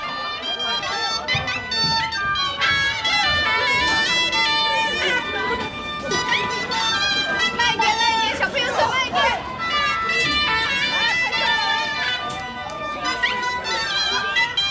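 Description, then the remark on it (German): A dense, busy crowd murmurs and chatters continuously at a wedding venue for bridal couples in Longjing, China, many overlapping voices blending into a steady loud hubbub, with occasional brighter shouts and higher voices rising above the din. “Und in dem Longjing hat es so eine Art ein Disneyland für Hochzeitspaar. Also eine Art eine Hochzeitsfabrik.”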